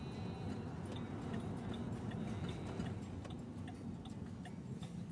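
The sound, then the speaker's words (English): A Chevy Malibu's turn signal ticks in a steady, even rhythm of quick clicks, fairly faint, over a continuous low engine and road rumble, with no one speaking. “See, I can indicate on”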